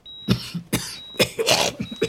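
A close, harsh coughing fit: several rapid, raspy coughs in quick succession with short gasps between them, no talking.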